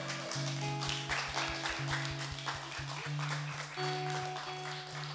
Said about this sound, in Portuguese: Uma salva de palmas para o Senhor, por favor.